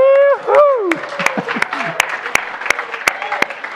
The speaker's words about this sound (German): Wenn du das glaubst, dann gib dem Herrn jetzt einfach so einen richtigen Jubel und Jauchzerer. Klatschen dürfen wir auch noch. Juhu!